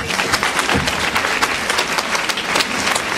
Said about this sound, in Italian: Io dirò soltanto una cosa, a parte il ringraziamento alla casa editrice Feltrinelli che ha, che ha consentito appunto, un applauso alla casa editrice.